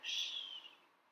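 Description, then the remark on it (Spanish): A single high, drawn-out bird call sounds faintly, starting bright and slowly fading away within about a second, in the high jungle at the Palenque archaeological zone in Chiapas. No one is talking. “Palenque se encuentra ubicada en la selva alta de Chiapas, donde constantemente se escuchan gruñidos de monos araguatos, del jaguar y el canto de exóticas aves.”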